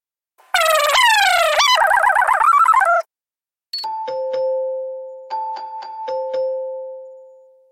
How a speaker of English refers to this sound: So, uh, through the power of post reduction editing, we're going to fast forward to that alarm going off.